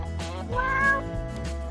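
A cat meows once, a drawn-out, rising and falling cry heard up close and fairly loud, with no talking over it.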